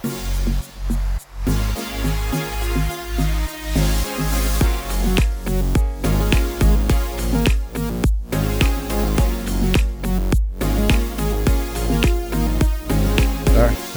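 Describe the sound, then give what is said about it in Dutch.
An upbeat instrumental intro jingle with a steady, punchy beat and bright synth layers, loud and continuous for its whole length with brief dropouts, and no one talking over it. “Rol het intro.”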